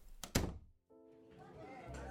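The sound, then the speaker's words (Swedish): The door of a bedroom where children sleep is pushed shut with a single solid thunk, then a brief silence before a voice starts speaking over a low background hum. “Men han tänker inte mer på det och skjuter igen dörren.”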